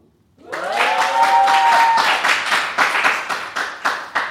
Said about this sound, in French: Mais aussi le public de l'antenne à Paris, ici, public en folie, et je le prouve.